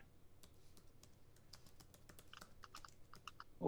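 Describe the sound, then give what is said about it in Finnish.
Rapid typing on a computer keyboard, a steady patter of crisp key clicks with uneven rhythm, fairly quiet, with no voices, ending on a slightly louder tap. “Ootko koneella?”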